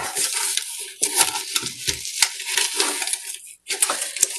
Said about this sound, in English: So um, let's pour the half cup of sugar in there. And now our quarter cup.